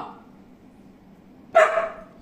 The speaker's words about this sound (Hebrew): אוי, חמד שלי, תראה מי בא, איזה מתוק, כי יש מזגן, אז אתה בא, חמוד. אתה הכלב הכי יפה שיש, אתה כלב... אבל שקט. סתום!